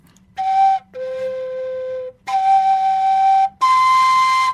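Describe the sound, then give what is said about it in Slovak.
A koncovka overtone flute, played with all finger holes covered, sounds four sustained, breathy tones in sequence, each held about a second with short gaps, stepping through the first tone, the fifth and the octave above, ending on the highest, brightest note. “Takže keď e, urobím z nej koncovku tým, že zapchám všetky diery, tak hneď mám prvý tón, potom mám piatý tón a potom mám vlastne mm, o stupnicu vyššie.”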